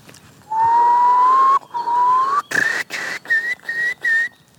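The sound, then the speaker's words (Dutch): A person whistles an imitation of a curlew's call: a long rising tone, then a series of shorter, higher whistled notes broken by brief gaps, clear and fairly loud with no talking. “Eh, dat is Doe eens een wulp.”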